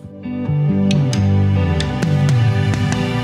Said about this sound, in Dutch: laten we eerst even een stukje luisteren naar dit lied …, dat geschreven is door de zanger zelf